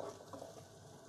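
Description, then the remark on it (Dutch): A soft, steady sizzle as half a thinly sliced white cabbage is added to melted butter in a pan to fry, with light stirring and rustling. Fairly quiet, no voices. “En nu doe ik die halve witte kool, flinterdun gesneden, doe ik in de pan.”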